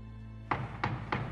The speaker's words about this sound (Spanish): Y lo siguiente son golpes a la puerta de su misma habitación.